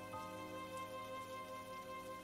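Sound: raindrops falling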